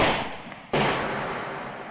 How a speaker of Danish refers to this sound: To skud